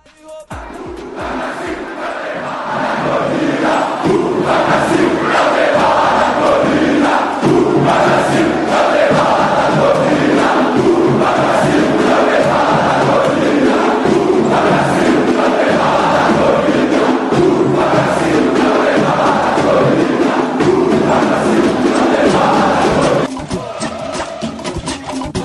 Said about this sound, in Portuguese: Última torcida a cantar aqui é a do Vasco.